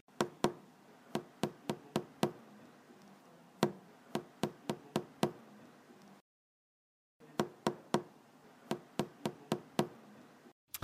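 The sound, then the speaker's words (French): Water drops fall in rhythmic bursts of sharp, bright taps, about six to eight at a time, separated by short pauses and one brief silence, over a low steady background hiss. “En fait, il fait tomber des gouttes”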